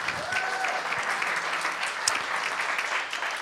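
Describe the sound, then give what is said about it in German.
A crowd applauds steadily, a dense wash of clapping that holds at an even level throughout, with a brief whistle-like tone and faint voices mixed in. “Applaus für unsere Jesus Freaks.”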